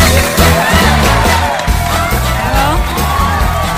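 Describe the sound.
An audience applauds and cheers loudly and steadily for about four seconds, called for by the host to welcome a guest, a dense wash of clapping mixed with overlapping whoops and high shouts from many voices.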